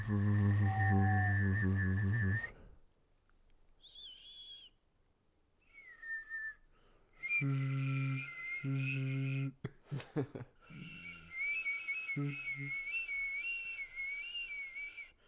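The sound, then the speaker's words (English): Someone whistles in long, wavering tones that slide up and down, with short pauses between phrases and a few lower humming sounds mixed in. “you were whistling for 10 minutes.”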